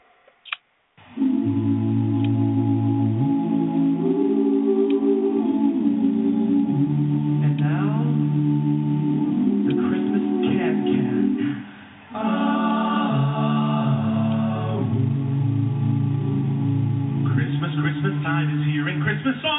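A small vocal group sings a holiday song in close harmony with no instruments, holding steady, full chords that drop away briefly partway through before the voices come back in together.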